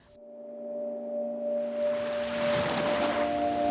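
A steady low engine drone with a humming tone runs beneath a swelling wash of water and wave noise that grows louder, like a boat carrying a man back to the island of Livø, Denmark, in 1943.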